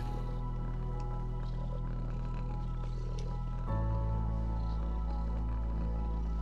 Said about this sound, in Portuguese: Estão cheios de sono os gatos e enrolam-se todos para dormir. Inspira. expira e ouve os gatos a ronronar.